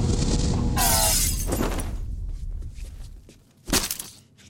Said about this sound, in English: then they squash a mango. Yeah. And the first time they do it, Toby Jones goes, It sounds too watery. Can we get more of a ripe or firmer mango?